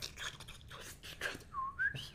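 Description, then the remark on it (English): A person whistles a short, wavering melodic phrase, the tone sliding upward in bursts with breathy, airy noise between notes, imitating a female performer's distinctive whistling from the musical break in the middle of a song. “her style of whistling is that what what she did was she would put ice in her mouth”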